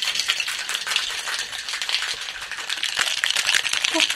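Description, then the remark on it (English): Ice rattles hard inside a cocktail shaker holding egg white and lemon, shaken to blend and emulsify the drink, in a fast, steady rhythm, a loud, bright clattering that runs continuously for several seconds with no talking over it. “So, what we're really trying to do is I'm shaking like crazy just to get all this to blend together.”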